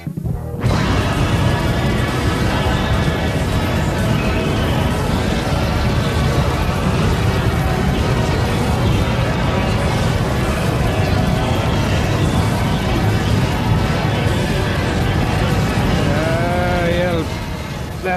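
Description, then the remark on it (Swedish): A loud, dense wall of 24 different songs playing at once, blurring into a continuous cacophonous drone of overlapping melodies and rhythms that holds steady before cutting off near the end. “här är alltså eh, 24 stycken olika låtar på en gång. Det är nog ett ljud som ni aldrig har hört förut va?”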